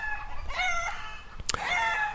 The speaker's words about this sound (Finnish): Tuossa taustalla ääntelevät kenttäpiispa Särkiön kotikanalan kanat ja kukko.